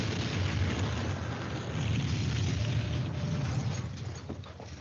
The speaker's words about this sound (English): Ah, oh, good explosion. practical effects, no CGI there.